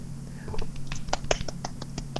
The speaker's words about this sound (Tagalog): galing nice wala bang palakpak